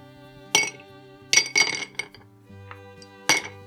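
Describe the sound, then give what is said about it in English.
Ice cubes drop into a glass, which is being filled mostly with ice before whiskey is added for a drink, in several bright, ringing clinks at irregular intervals, with a few fainter taps between them and a soft glassy resonance lingering underneath. No one speaks. “Now we're going to fill the glass mostly with ice and, of course, add our whiskey.”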